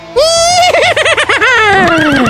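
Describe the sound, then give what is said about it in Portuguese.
A single loud horse whinny lasting about two seconds, rising then trembling in a rapid vibrato before trailing downward, heard alone with no talking. “Corre, cavalo.”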